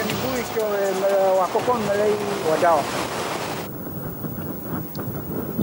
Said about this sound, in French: Plus loin, il longe les côtes, traverse des falaises escarpées et débouche soudain sur le bruit assourdissant des vagues.